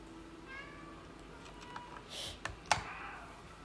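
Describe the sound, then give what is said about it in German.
A short, soft cat meow made by the player in a video game for cat lovers rises and falls early on, followed by a few sharp keyboard clicks and taps against a quiet background hum. “ist so geil, dass man da einfach miauen kann.”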